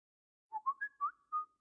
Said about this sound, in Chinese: 手机传来短信提示音，苏浅看到上面厉天晴的名字，心里一阵激动。